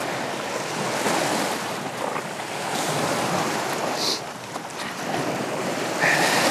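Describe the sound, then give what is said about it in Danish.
Steady surf of waves breaking and washing over a rocky beach with huge stones, a continuous loud rush of water with gentle swells in intensity, some wind noise, and no voices. “Jeg elsker det her stykke på stranden, fordi at øh, der er sådan nogle kæmpe sten, man kan gå på og lege bjergbestiger.”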